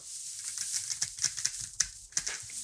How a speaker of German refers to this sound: Diese eingemachten Birnen haben wir seitdem im Glas. Und die öffne ich jetzt mal.